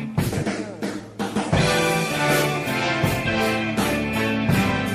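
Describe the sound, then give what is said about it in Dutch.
A loud 1975 rock song plays on its own, with heavy drums, crashing cymbals and thick, sustained guitar and orchestral chords driving a steady, powerful groove. “Je hoort …, … met het nummer ….”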